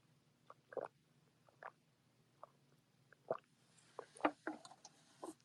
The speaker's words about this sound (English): Pause for drink.